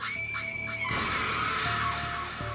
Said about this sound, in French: les hommes qui ont le malheur de croiser sa route entendent d'abord un son caractéristique. Le grattement métallique des chaînes qui emprisonnent ses sabots. Puis, un hennissement mélangé à un cri de femme.